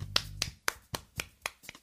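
A quick series of about seven sharp hand claps in a steady rhythm, done live in place of an applause sound effect, fairly loud, with no voices.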